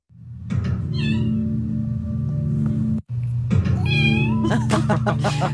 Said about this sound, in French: où l'on voit Sawyer, le petit chat, le petit matou de 4 mois, miauler et être en transe